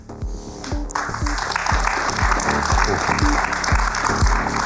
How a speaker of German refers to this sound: Applaus